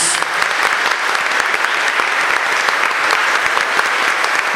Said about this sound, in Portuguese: Vamos aplaudir a palavra de Deus, filhos queridos.